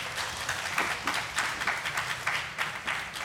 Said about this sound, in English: Give that a round of applause.